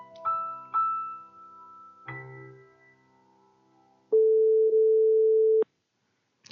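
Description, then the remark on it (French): A few chiming electronic tones fade out, then a single loud, steady ringback tone of an outgoing phone call sounds for about a second and a half before cutting off. No one speaks. “Allez, là, je vous le fais en direct. Hein, vous entendez sonner.”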